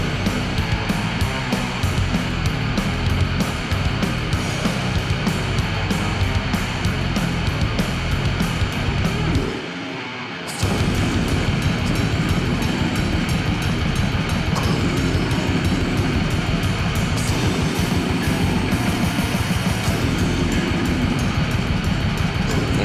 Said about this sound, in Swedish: den här rejuvenated variant av death metal som kanske börjar någonstans med … … sång. Mycket reverb.